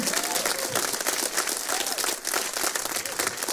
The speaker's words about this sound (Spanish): Si le va dar un aplauso, denle un aplauso bien fuerte a su Señor.